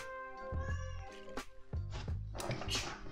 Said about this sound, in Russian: Что-то кошка внимание требует. Она накормленная.